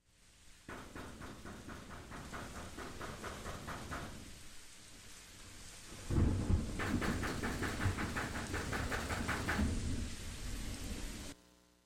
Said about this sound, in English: The sound of loud knocking on a steel or a metal door, coupled with the sound of rain and trickling water. It was so loud that I woke up out of a deep sleep and I immediately jumped up out of the bed.